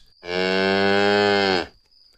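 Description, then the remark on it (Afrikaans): A single loud, sustained cow moo lasting over a second, steady, rich with low harmonics, then fading into near silence. “Die eerste ding wat sy sien, is die koei op die dak van die huis.”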